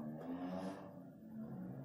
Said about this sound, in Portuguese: Carro barulhento passando